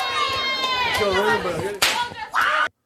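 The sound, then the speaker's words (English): A single loud whip crack, cracked by wrestler Dutch Mantell at the start of a match, snaps out sharply over a noisy, echoing wrestling crowd, followed shortly by a brief burst of cheering before the sound cuts off. “Oh, how about Dutch making sure he cracked that whip to get started?”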